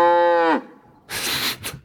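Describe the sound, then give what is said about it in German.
A single loud, drawn-out cow moo with a rich harmonic tone that bends downward at the end, followed after a short pause by a burst of breathy, noisy rustling. “Gut, dass ich die Kuh nicht erkannt habe, auf jeden Fall.”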